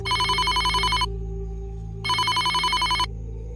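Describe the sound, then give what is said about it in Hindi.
A phone rings with an incoming call from an unknown number, a rapid trilling electronic ringtone in two bursts of about a second each, separated by a one-second pause, over a steady low hum. “शुरुआत हुई थी एक फोन कॉल से एक अननोन कॉल आया था उनके पास”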